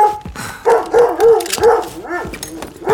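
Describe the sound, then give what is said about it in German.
A dog named Karl barks in a quick run of four or five loud, sharp barks and yelps, ending with a rising, whiny yelp. No one speaks. “Aus, Karl. Aus.”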